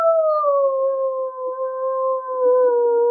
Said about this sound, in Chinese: 野狼想了一想，突然他大叫：“嗷！”